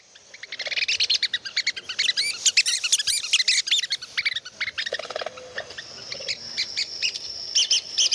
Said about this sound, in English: So, this is the sound coming from your little handheld speaker there. Just a recording of red cockaded woodpeckers. Um, they make different calls. This one's a little bit more of a aggressive this is my territory call, mm-hmm.